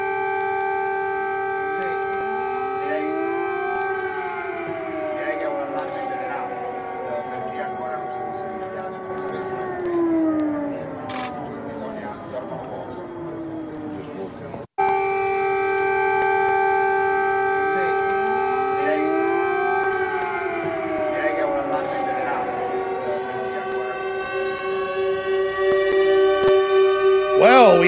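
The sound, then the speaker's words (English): A loud air raid siren in Ukraine in 2022, sounding as bombs are dropped on military targets, wails continuously, its layered tones rising and falling in long sweeps. The sound cuts out for an instant midway, then resumes and swells toward the end. “don't have to come in with our own canned air raid sirens from during the Cold War. We got real air raid sirens in 2022 as thousands of bombs get dropped on military targets across the birthplace of the Slavic peoples, Ukraine.”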